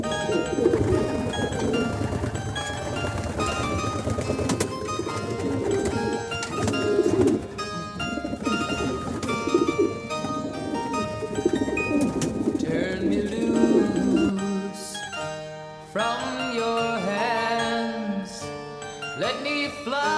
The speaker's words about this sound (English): I think to hear something making that lovely sound, because feral pigeons make this sort of woo woo sound and it's quite hypnotic, really. Um, the youngsters can sound a little bit noisy, but I think, I think pigeon sounds are, are very calming.